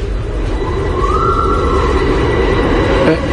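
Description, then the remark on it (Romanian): A steady, loud rumble of a metro train pulling away from Parc Drumul Taberei station in the Drumul Taberei district, on a recently inaugurated line, with a rising and falling whine sweeping through the middle of the roar and a faint clack near the end. “Uite, unul doar ce-a plecat.”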